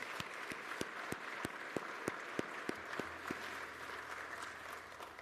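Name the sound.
round of applause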